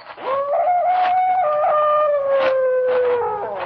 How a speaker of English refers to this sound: From somewhere across the lake, I heard the cry of a dog, and the sound of it filtered through and was carried along by the night air.